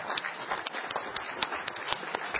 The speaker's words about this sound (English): They were truly the center of our move. So I'd like a round of applause for them. A couple of them are here right now.